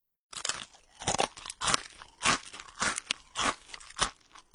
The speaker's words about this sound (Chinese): 第二，通过清脆的声音，吃苹果、吃薯片之类的。